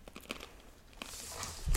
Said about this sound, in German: Also wir knuspern jetzt gerade.